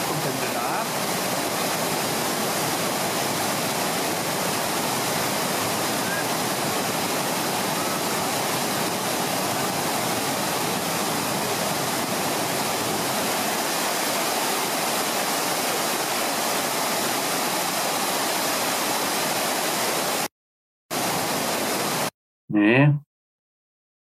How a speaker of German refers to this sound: Ihr könnt euch die Wassermassen nicht vorstellen.